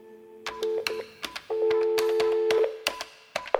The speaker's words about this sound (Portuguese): Ligação perdida.